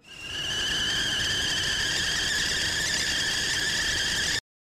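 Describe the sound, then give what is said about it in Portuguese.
A whistling kettle lets out a loud, steady, shrill high-pitched whistle that swells up in the first moment, holds evenly for about four seconds, then cuts off abruptly. No one speaks. “E a nossa chaleira já tá ligada.”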